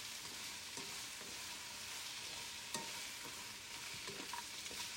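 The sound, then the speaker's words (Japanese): Steady, dense sizzling of home-grown pumpkin being stir-fried as kinpira in a pan, with intermittent scraping and clacking as a utensil stirs and tosses the pieces; no voices, the frying hiss continuous throughout. “家で採れたかぼちゃをきんぴらに”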